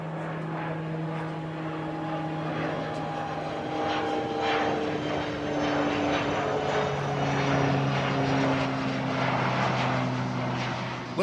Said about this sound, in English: that was a twin engine propeller plane, the kind you need if you're going to get to and land on the island of Mustique.